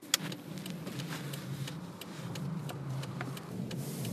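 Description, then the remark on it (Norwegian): A car without winter tyres drives steadily along a snow-covered road in Washington with a low engine rumble, while scattered crisp ticks and crunches pop over it as the tires roll through the snow. “Å kjøre bil på snødekte vei uten vinterdekk er ikke så veldig lurt. Men det gjør alle som bor her i Washington, og nå gjør jeg det også.”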